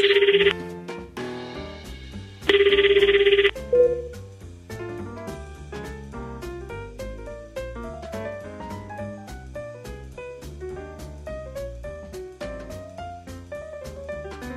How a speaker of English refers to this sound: The phone rings.